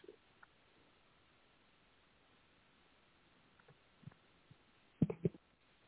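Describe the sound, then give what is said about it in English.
A distorted, band-limited phone line with a steady hiss and faint scattered crackles, ending in a brief louder garbled burst of noise. No clear speech comes through. “Your distortion this morning, huh? Nothing but distortion.”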